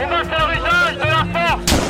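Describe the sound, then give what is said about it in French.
Stun grenade blasts thrown by police, along with tear gas launches, to disperse several hundred gilets jaunes (yellow vest) protesters at a street protest in France: heavy booming bangs over a constant roar, with rising and falling whistling tones throughout and a sharp, loud burst near the end. “On entend euh, tous ces bruits de grenades assourdissantes, ces jets de gaz lacrymogènes qui sont lancés par les forces de l'ordre pour tenter de disperser plusieurs centaines de gilets jaunes.”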